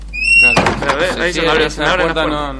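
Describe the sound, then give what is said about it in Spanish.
A loose car door that came open while driving squeaks with a thin, high creak, then shuts with a single solid thump. Someone starts talking right after the slam. “no, le anda bien esa puerta, porque se ve que está, floja.”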